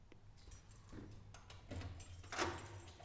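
A heavy metal door rattles and scrapes as it's pulled open, with clanking knocks and a grinding screech near the end over a low rumble, close by and fairly loud, no talking.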